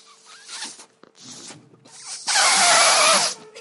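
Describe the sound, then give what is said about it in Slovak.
Someone blows air into a balloon: a few short, breathy puffs and scrapes, then one long, loud rush of air lasting about a second, with no talking. “ty nejako nejde mi to fúkať, musím si to lepšie”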